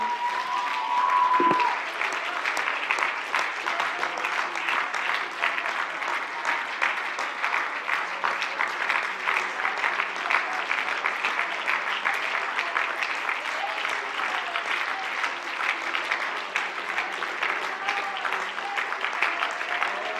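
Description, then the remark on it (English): An audience claps their hands to worship God in sustained, dense applause that holds steady for about twenty seconds, with a brief tone near the start and faint voices mixed into the clapping. “I think it'd be appropriate to pause and just clap our hands and worship God for a moment.”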